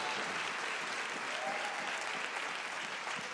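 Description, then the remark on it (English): A crowd applauds in praise, clapping steadily in a dense, sustained wash of applause without pause, with a faint voice briefly rising above the clapping. “Come on, if you believe that, give him praise.”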